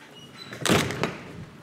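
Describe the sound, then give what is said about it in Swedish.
A heavy door of the stock exchange building opens as people leave, with a broad, rushing swish and a short follow-up thud, against a quiet background hum. “Jag tänker också, ska vi gå ut? Eh, nu lämnar vi börshuset.”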